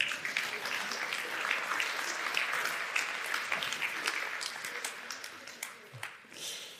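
An audience bursts into steady applause, many hands clapping in a dense, continuous patter that holds for several seconds before thinning out toward the end.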